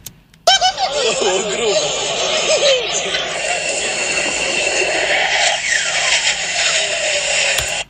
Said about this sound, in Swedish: Du, vi har ett klipp härifrån Youtube där, eh, där det är en sån eh, uppvisning och så flyger det JAS förbi publiken här. Vi ska lyssna på hur det låter där.